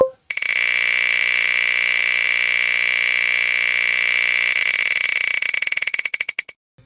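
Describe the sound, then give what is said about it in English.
A spinning-wheel sound effect from a topic randomizer, triggered by clicking a button to pick a discussion topic: a loud rapid ticking so fast it blurs into a steady buzzing tone, then the ticks slow and spread out as the wheel winds down and stops. “so everybody can hear the little spinny noises.”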